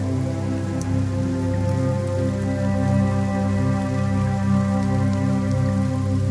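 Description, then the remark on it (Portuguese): Steady rain falls through the night without pause, a continuous patter with a low, even hum underneath and occasional faint drips, and no one speaking. “A chuva cai durante toda a noite e a garota mantém-se dormindo até de manhã.”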